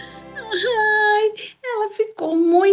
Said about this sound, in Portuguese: muito triste e começou a chorar.